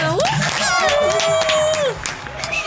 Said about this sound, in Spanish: Eso, un aplauso.